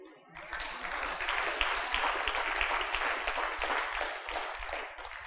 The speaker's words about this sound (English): Don't clap too much.